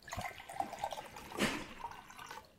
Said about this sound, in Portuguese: Ela me serve um copo d'água.